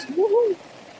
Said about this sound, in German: Es regnet. Es regnet.